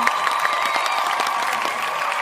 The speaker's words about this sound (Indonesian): Baiklah, saya sudah memegang sebuah kertas yang berisikan nama pemenangnya dan pemenangnya adalah Tim Dani Suara. Mari beri tepuk tangannya.